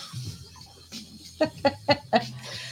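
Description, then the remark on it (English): A chicken clucks four times in a quick, even series, fairly loud, after a second or so of quieter low fowl murmuring, with no talking. “The chicken's living in my room forever, isn't she?”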